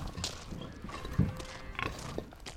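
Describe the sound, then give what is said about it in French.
Dairy cows being fetched and herded through a field outdoors for milking, with shuffling hooves and a few short low snorts and grunts over steady rustling background noise, fairly quiet. “Alors moi aussi, je vais mettre une cote et on va chercher tes vaches.”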